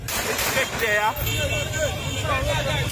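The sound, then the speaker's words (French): Members of a protected-areas brigade parade through the streets of the northeastern town of Wanamint on a Tuesday evening: engines rumble steadily underneath while a crowd of voices shouts and calls over one another, loud and continuous for the whole stretch. “Depuis que les autorités ont limogé le chef de l'Agence nationale des aires protégées, dont dépend la BESAP, ses membres paradent dans les rues de Wanamint, comme on peut l'entendre en ce moment.”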